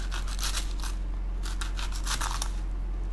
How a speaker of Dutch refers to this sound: Ik ga de ui snijden. Ik voel aan de zijkant van de ui, eh, dat is niet goed.